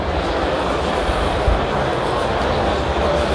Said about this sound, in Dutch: Het is een zee van mensen wat ik hier hoor. het is ook heerlijk geruis ook, als je op zee bent.